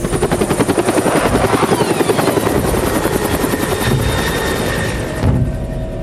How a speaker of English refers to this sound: The pursuing planes and helicopters veer off.